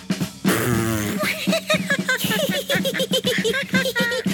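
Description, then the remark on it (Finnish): A loud, buzzy fart sound opens with a sputtering burst, then continues as a series of rhythmic, tonal blasts, prominent with no talking. “Loppukevennys on Pieru!”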